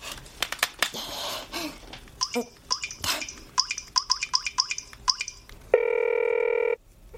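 Dialing on a mobile phone: a few soft taps, then a quick run of short, high electronic key beeps, followed by one steady buzzing ring tone lasting about a second. No one speaks.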